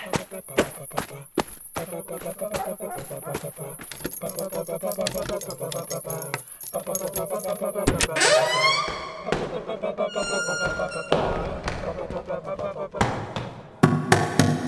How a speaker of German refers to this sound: Los, du Aas! Mach auf! Was du da bist! Mach auf! Ich tritt deine scheiß Tür ein, ich mach dich alle!